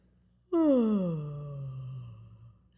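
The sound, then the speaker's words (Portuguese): A single long, voiced yawn, done as a singing exercise to lower the palate: it starts abruptly, then slides down in pitch into a sustained, breathy drone that fades after about two seconds. No speech. “E esse um desses exercícios é bocejar. Quando você boceja,”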